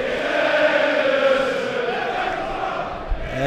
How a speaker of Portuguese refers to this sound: Aí a musiquinha para o Ederson, que está aqui perto da torcida nesse primeiro tempo.